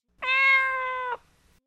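A single drawn-out cat meow, loud, holding a steady, even pitch for about a second before cutting off abruptly into near silence.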